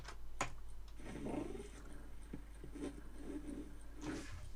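A cat gives a few short, fairly quiet meows in a row to wake someone sleeping in bed, with small clicks and taps scattered between them and no one talking.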